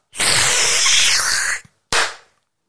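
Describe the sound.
A voice imitates a men's toilet flushing with a loud, sustained rushing whoosh for over a second, then after a brief pause mimics the toilet door, which had no rubber on it, slamming with one sharp burst that quickly fades.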